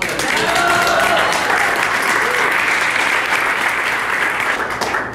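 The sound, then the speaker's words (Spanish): A crowd applauds the group's leader, loud and steady for about five seconds, a dense wash of clapping with a few faint voices mixed in. “Tiene una aplauso al líder, ¿no?”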